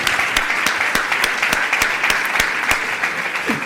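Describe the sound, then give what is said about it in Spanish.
A crowd applauds steadily for Germán Pesela, second captain of the Betis squad, a dense wash of many hands clapping with sharper individual claps popping out at irregular intervals, sustained at an even, fairly loud level throughout. “Pido por favor un aplauso a Germán Pesela, el segundo capitán de la plantilla.”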